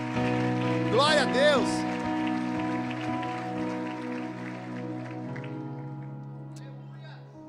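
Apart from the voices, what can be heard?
audience applauding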